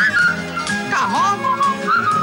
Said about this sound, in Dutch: Het eerste wat ik schreef was het fluitdeuntje.